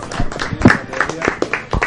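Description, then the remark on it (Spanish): A short burst of scattered hand claps from a small group, steady and fairly loud, with voices murmuring underneath throughout, given to thank and congratulate a guest. “Bien, te agradecemos entonces mucho nosotros, te vamos a dar un aplauso y felicitarte por...”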